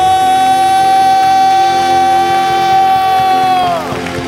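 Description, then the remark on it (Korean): A large crowd applauds and shouts in loud, continuous cheering, giving applause of thanks and glory and a shout of victory to God, while a sustained bright keyboard tone rings over the noise and slides downward just before the end. “여러분이 믿으시는 만큼 하나님의 일하심을 경험하고 싶으신 만큼 하나님께 감사와 영광의 박수 올려드립시다 주님께 승리의 함성”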